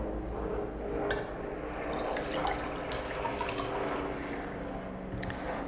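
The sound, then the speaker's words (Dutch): A steady stream of liquid is poured into a small glass, a continuous splashing, gurgling fill with no talking, lasting several seconds. “Kan ik mooi even een eh, glaasje inschenken, want ik heb een kikker in mijn keel.”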